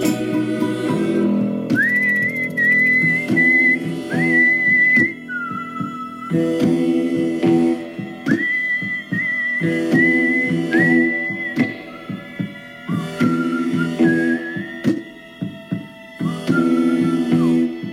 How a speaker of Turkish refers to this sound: sevdiğim parçaları ıslıkla sola giriyordum. Ben kimsem. Güzel oluyordu ama.